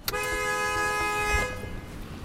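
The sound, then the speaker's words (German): A car horn blares in one long, steady, loud honk for over a second in a traffic jam in both directions on Cherokee Orchard Road near Gatlinburg, Great Smoky Mountains, over a low rumble of a dozen cars idling with engines running that continues after it stops. “Stau in beiden Richtungen auf der Cherokee Orchard Road bei Gatlinburg am nördlichen Rand der Great Smoky Mountains.”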